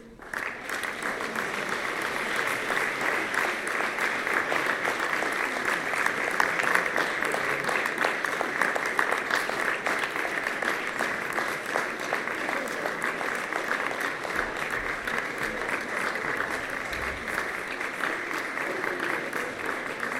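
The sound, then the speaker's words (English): Sustained applause from a crowd for the open vocal ensemble winners: Haverfordwest High School Girls Trio, Pembrokeshire College Girls Trio and Haverfordwest High Boys Quartet. A dense, steady clatter of many hands clapping at an even loudness for about twenty seconds with no clear breaks. “A big round of applause.”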